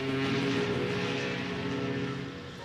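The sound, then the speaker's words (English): A jet engine roars steadily and loudly throughout, a continuous droning rumble with a humming tonal whine layered on top, easing off only slightly toward the end. No voices are heard. “arrived at the docks excited to see the jet engine.”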